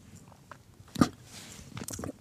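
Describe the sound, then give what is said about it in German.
A sip of coffee from a thermos flask followed by a swallow, with a sharp wet mouth sound and a few soft gulping and lip noises, no talking. “Ich nehme mal einen Schluck Kaffee aus meiner Thermoskanne.”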